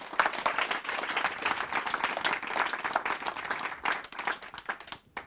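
Steady, dense applause from a crowd, many hands clapping at once in a bright, crackling wash that holds fairly even for about five seconds before thinning and stopping abruptly.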